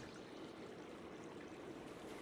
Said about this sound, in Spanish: Mientras me acercaba, presa de la curiosidad, el ruido como de agua corriendo a través de un río llamó mi atención.